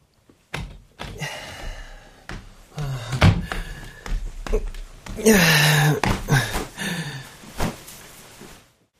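A door opens with a few solid thunks and knocks, followed by shuffling and rustling movement as someone comes in through the door.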